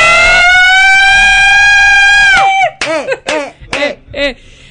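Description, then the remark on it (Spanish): A long, strained vocal "ahh" held for a couple of seconds breaks into a quick series of four sharp, loud sneezes, with no talking. “Eh, salud desde mi corazón.”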